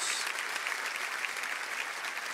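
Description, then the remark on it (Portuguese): Steady applause from a church audience for the people coming forward to the front to be prayed with, many hands clapping in a dense, continuous patter at an even loudness for the whole stretch, with no speech over it. “Vamos aplaudir essas pessoas que estão vindo, irmãos.”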